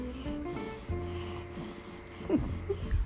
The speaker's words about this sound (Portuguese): Ah, vocês vão ter ah, o privilégio de ouvir um pouquinho desse ronco agora no final.